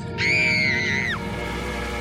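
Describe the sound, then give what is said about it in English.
A single shrill, piercing scream at a camp at 4:31 at night holds steady for about a second, then slides downward and cuts off, leaving a low, constant background rumble. “The screams started at 4:31.”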